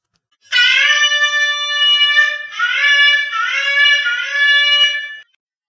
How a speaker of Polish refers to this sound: W każdym razie szewarim, ten dźwięk, który kojarzy się z ukorzeniem przed Bogiem, brzmi tak.